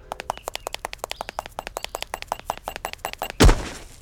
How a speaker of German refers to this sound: So, jetzt knallen wir gegen die Wand, sind also am Ende des Bauwerks angelangt.